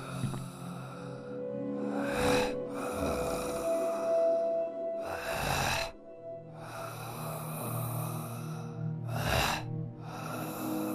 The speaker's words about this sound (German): Dann höre ich es. Kratzend schleppend, stöhnend. Ein Geräusch, von dem ich mich verzweifelt überzeuge, es entspringe einer alten Klimaanlage, die angeschalten wird.